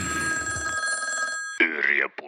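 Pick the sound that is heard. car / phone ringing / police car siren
phone ringing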